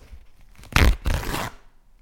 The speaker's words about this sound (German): das klang wie so ein Furzkissen, das wird es wahrscheinlich nicht gewesen sein. Genau, es ist ein Furzkissen aus der Yps